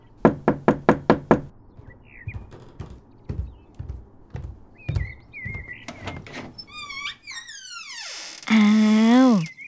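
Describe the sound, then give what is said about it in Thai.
Early on a holiday morning, a rapid burst of five loud knocks sounds on the front door of a dilapidated two-storey wooden house as a woman and her two sons wait outside, followed by quieter scattered taps and thumps, then high chirping sounds and a loud sustained tone at the end. “ลูกชายสุดที่รักของเธออีกสองคน ที่มาเป็นประจำ กำลังยืนรอให้ใครสักคนมาเปิดประตูให้อยู่ที่หน้าบ้าน”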